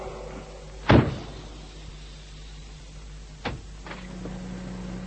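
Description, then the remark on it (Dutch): A heavy airlock door opens with a loud thud and rush, followed a few seconds later by a softer mechanical clunk over a steady low machine hum. “Ik ga nu hun luchtsluis in en beveel ze om die vol te laten lopen.”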